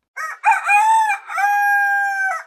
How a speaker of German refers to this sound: Der eine Hahn kräht eher hoch, des anderen Schrei ist eher rau. Allen henen gemein ist, dass sie hohe Lautstärken produzieren können,